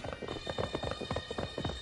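animal, horses galloping

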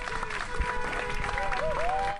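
crowd, crowd applause

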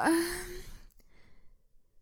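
human body sound, a yawn

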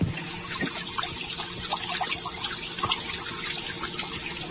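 household object, water gushing

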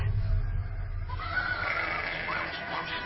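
animal, donkey braying

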